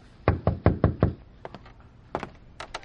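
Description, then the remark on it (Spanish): Five firm, evenly spaced knocks on an office door, clear, followed after a pause by a couple of lighter taps and then another quick burst of knocking. No one speaks. “Pirulo abre la puerta del despacho y aparece Cristico en uniforme de portero”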